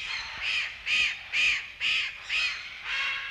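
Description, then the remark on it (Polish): A young chimachima caracara, a South American bird, screams without pause in a steady series of six harsh, drawn-out calls about half a second apart, loud, with no voices over it. “Krzyczy bez przerwy, młodociany okaz nie może się przedstawić przy pomocy mikrofonu.”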